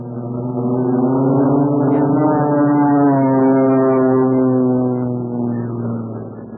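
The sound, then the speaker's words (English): A loud, steady airplane engine drones continuously as the plane comes in to land, its pitch gliding slightly upward and then settling back down, with no voices over it. “Steady now. I'm going to set her down. Steady. Oh, here he comes.”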